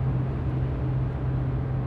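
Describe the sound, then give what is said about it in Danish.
Steady, loud low-frequency rumble of a car travelling at 130 km/h on a motorway in Denmark, with constant road and engine drone and a strong hum throughout, no talking. “Prøv folkens motorvej. Det er der for biler.”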